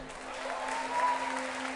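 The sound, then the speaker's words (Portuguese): A church audience applauds the Lord together, a steady, dense wash of clapping at moderate volume with no voices standing out, accompanied by a faint sustained hum underneath. “Quem é que pode aplaudir ao Senhor?”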